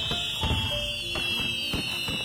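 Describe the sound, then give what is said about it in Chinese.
Fireworks brought by Axi people going off at a village New Year's Eve celebration on 31 December 2018 in Mile: four or five sharp, booming bursts at irregular intervals over a continuous high-pitched whistling whine, with other pitched tones rising and fading. No one speaks. “最后，阿西族的朋友还带来了烟花。”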